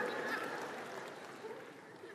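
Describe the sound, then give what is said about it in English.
An audience claps in response to a joke about marriage, a dense, steady wash of many hands, holding fairly even for about two seconds before easing off slightly at the end. “Go ahead and clap.”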